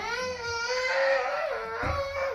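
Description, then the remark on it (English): A toddler girl cries in one long, high-pitched wail that wavers slightly in pitch and stays loud throughout, with no one else speaking. “Let me get her to calm down.”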